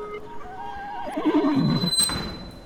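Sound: horse neighing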